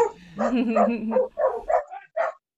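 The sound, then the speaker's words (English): Small dog yapping in a quick, uneven run of five or six short barks, moderately loud and slightly muffled, as if played back through a small recorder speaker. “and it sounded like a small dog was barking in the background.”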